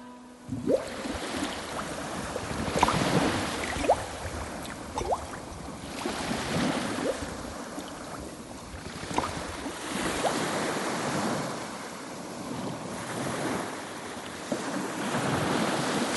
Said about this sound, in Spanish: las olas, las olas, las olas de la mar. Olitas, olitas, olitas de la mar. Para este chiquito, las olas de la mar.